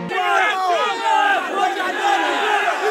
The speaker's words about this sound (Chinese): 没有想到跑在前面的几个人同时就摔倒了，听到了啊此起彼落的惨叫声啊！哦哦哦！